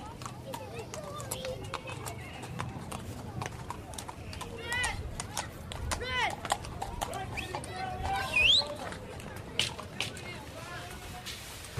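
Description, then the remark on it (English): Horse hooves clip-clop in a steady, quick rhythm on a hard surface on the north side of Dublin, with indistinct voices and street noise in the background and a brief high chirp partway through. “All the kids around here around horses because it keeps them out of trouble.”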